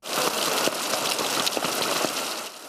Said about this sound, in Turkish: Kışın ortasına yaklaşırken beklenen sağanak yağış haberi ise sonunda meteorolojiden geldi.